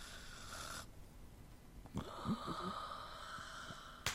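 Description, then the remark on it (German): Someone snores with a few rough, rattling snorts in quick succession, moderately loud, over a steady background hiss. No one speaks. “hören Sie doch mal auf zu schnarchen, Mensch.”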